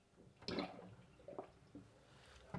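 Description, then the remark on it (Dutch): Water draining away, heard faintly: a brief gurgling rush near the start, then a few soft, scattered drips and gurgles over a quiet background, with no talking. “Tijdens eh, het weglopen van het water”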